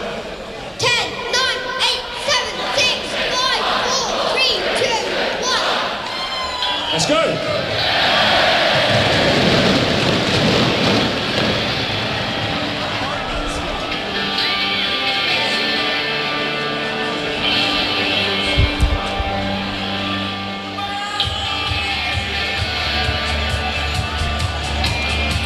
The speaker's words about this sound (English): fantastic town fireworks at Adams Park this evening